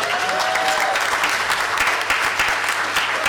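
A crowd claps steadily together for a man invited up to share his baptism testimony, a dense, sustained wash of applause from many hands, with a faint brief tone near the start and no voices.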